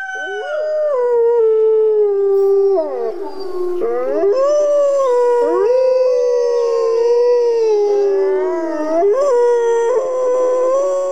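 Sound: howling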